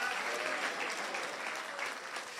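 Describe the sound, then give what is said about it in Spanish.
Loud, sustained applause from an audience, a dense wash of many hands clapping steadily throughout with no pauses and no voices standing out. “¿Cuántos dicen? un aplauso fuerte.”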